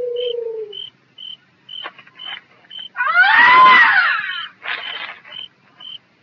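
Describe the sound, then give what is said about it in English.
A Native American man imitates a woman crying, a loud wailing sob rising and falling in the middle, with faint, regular high-pitched beeps or chirps repeating throughout. “It ain't no woman, that's an Indian. I know, I've heard him before. They want us to think it's her.”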